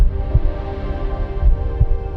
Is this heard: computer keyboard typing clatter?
no